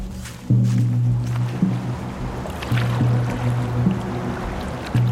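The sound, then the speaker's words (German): A kayak and an open canoe push off on a section of the Little Calumet River, shallow, 10 to 20 meters wide and densely lined with trees. A low steady hum returns in repeated surges over a bed of rushing water and scattered splashes, fairly loud. “Wir legen ab.”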